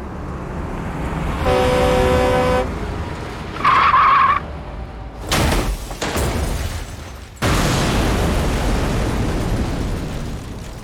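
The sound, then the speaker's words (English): A tanker truck blares a long horn on a road in a storm, then its tires screech briefly as the driver jerks the wheel and loses control, before loud crashing impacts and a heavy, roaring explosion that rumbles on to the end. No voices. “When he saw Brian, he jerked the wheel but lost control.”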